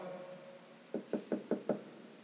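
Five firm, evenly spaced knocks on a door, close and clear, rapping in a quick steady rhythm after a moment of quiet room tone.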